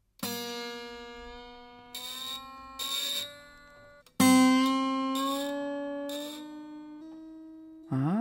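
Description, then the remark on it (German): Two sustained guitar notes ring out one after another, each lasting several seconds and slowly fading, the second pitched slightly higher than the first. No voices are heard. “Das waren jetzt zwei Töne an der Gitarre.”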